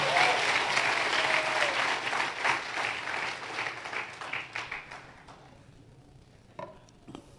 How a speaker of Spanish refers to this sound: Que alguien aplauda al Señor.